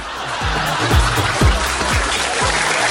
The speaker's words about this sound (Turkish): Bir e, moral alkışı, motivasyon, başarı alkışı gönderelim baştan. Şimdiden başarılar dileyelim çünkü ülkemizi Avrupa'da temsil eden bütün takımlarımıza hiçbir ayrımcılık yapmadan